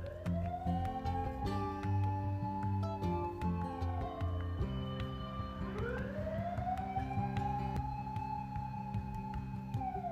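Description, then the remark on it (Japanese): A fire engine siren wails loudly, its tone sweeping up and down in long slow cycles over a steady low rumble of traffic, with no one talking. “えらい今度は消防車。”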